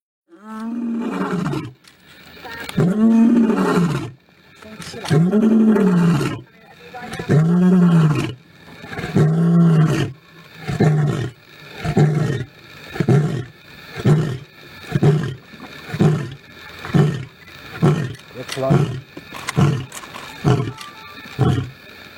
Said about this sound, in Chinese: 大家有没有人知道，在视频当中啊，这个雄狮它的吼叫代表什么意思？哎，我来给大家翻译一下：Who is the king? Who is the king? I'm, I'm, I'm, I'm。啊，谁是万兽之王啊？是我是我是我。